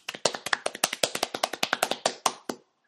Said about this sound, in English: So I think we should have a little round of applause for Google. They've actually done very well. Well done, Google.